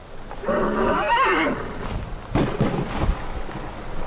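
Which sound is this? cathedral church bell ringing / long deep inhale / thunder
thunder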